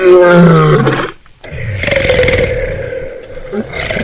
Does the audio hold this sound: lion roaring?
yes